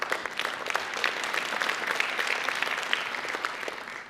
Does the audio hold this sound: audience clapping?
yes